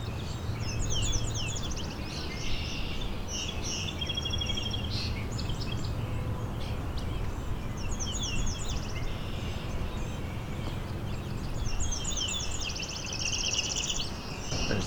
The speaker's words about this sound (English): Song sparrow here too.